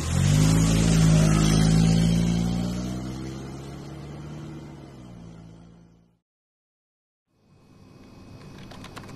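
A car engine revs loudly as it pulls off, its steady hum gradually fading over about six seconds into silence, followed by a faint, hissy background.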